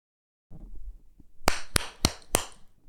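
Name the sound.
hand claps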